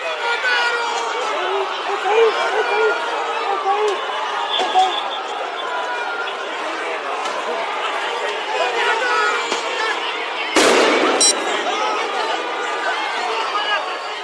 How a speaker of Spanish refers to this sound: Lo que están escuchando es un video de la cámara corporal de un policía en medio de una protesta que hubo en Santiago de Chile el 2020, en conmemoración del estallido social del 2019.